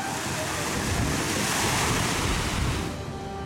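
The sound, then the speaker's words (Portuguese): A steady rush of water and wind as a boat with local guides moves across South Atlantic ocean waves on a coastal marine safari near Cape Town, the broad surging noise holding level and easing slightly toward the end, with no voices. “Navegamos ao lado de guias locais neste barco.”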